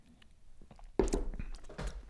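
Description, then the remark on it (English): A sharp knock of a whiskey glass tapped against a computer for a cheers lands abruptly about halfway through, followed by brief clinking and handling noises. “I'm gonna take a little cheers sip again. just so I can remind like, myself. Hit, hit my computer there.”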